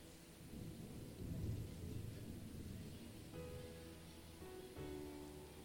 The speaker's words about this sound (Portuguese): Já começou a chuva? Já? Ainda não, né? Então dá mais um glória a Deus. É, que essa chuva aí é benção.